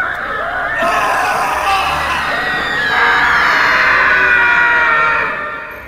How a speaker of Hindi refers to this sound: कि तभी उसे ऐसा लगा मानो दरवाजा बंद हुआ और शुरू हुई कमरे में लोगों की दर्द से चीखने की आवाजें उसे ऐसा लग रहा था मानो कैदियों को उसके सामने मारा जा रहा हो